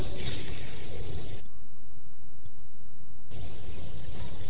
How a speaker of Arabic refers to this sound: خد مغسل حضن حاس او تكش نحاس كب فيه ميه